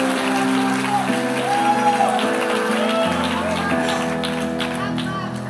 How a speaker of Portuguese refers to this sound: E obrigado. Vamos dar salva de palmas